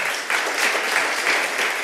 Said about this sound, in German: das ist ein Applaus.